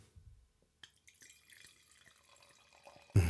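Wine, a Gemischter Satz, pouring and bubbling into a glass, with soft gurgles and small drips, ending in a sudden louder burst of sound.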